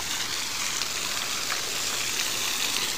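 Floodwater gushing up like a fountain in Sinop, tied by the talk to the Águas de Sinop water service, a steady, unbroken rushing hiss of water at an even loudness throughout, with no voices over it.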